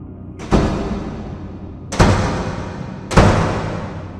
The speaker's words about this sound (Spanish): Se adentraron al pasillo que dirige hacia las diferentes salas y al final de este vieron con sus propios ojos cómo la puerta se agitaba con fuerza.